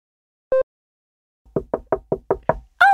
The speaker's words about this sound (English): that was my knee, not the door.